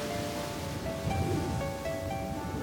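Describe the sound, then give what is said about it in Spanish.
Stormy sea waves surge in a steady, dense roar of rushing water with no distinct breaks, a faint sustained tone humming beneath the churning noise. “Pero el Señor hizo que soplara un viento muy fuerte y se levantó en alta mar una tempestad tan violenta que parecía que el barco iba a hacerse pedazos.”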